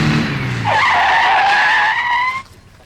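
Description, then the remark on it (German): A car approaches with a low engine rumble, then brakes hard, its tires squealing loudly for about two seconds before cutting off abruptly as it stops beside three people leaving a train station. “kam Frank Di Stefano mit seinem Auto angefahren. Er hielt neben den drei Detektiven an”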